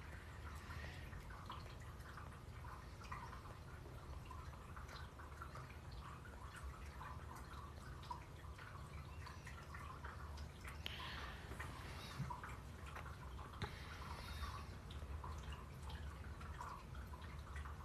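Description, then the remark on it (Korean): Quiet, steady trickling and dripping of water from Cookie's water container, a dense patter of small drops over a soft continuous wash, heard alone with no one talking. “쿠키 물통이에요 쿠키 물소리 물소리가 아니라 물통 물소리랑 합쳐졌네”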